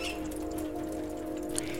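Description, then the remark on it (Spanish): Heavy snow falls on a greenhouse roof, making a steady soft patter of tiny ticks and hiss over a constant low mechanical hum, fairly quiet and unbroken for the whole moment. “Está nevando bastante.”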